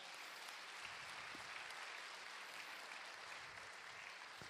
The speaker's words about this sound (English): The other thing, I really do appreciate the choir. And give the choir one more round of applause.